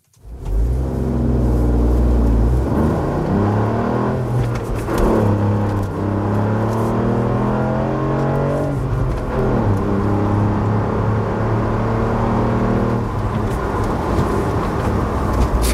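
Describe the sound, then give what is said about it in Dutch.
A lime-green Ford Puma ST crossover's engine revs hard, its pitch climbing and dropping through several gear changes as it accelerates, loud and continuous for the whole stretch with no voices. “Maar eh, gifgroene Puma ST van Ford.”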